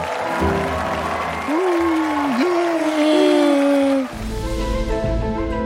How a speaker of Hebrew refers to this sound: קבלו אותן במחיאות כפיים סוערות, אבני הסילמריליים.